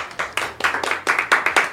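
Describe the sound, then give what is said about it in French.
A brief round of applause: a few people clapping in quick, fairly steady bursts of sharp, bright hand claps, moderately loud, with no voices over them. “Alors, s'il vous plaît, on va applaudir pour la première,”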